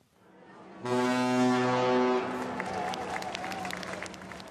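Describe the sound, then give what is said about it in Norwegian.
A Hurtigruten coastal express ship's horn blares loudly for over a second, a deep harmonic-rich blast, then fades into the hubbub of a crowd cheering and clapping, from NRK's minute-by-minute TV broadcast of the voyage along the Norwegian coast. “Dette er lyden av noe av den viktigste dokumentasjonen i nasjonen Norge.”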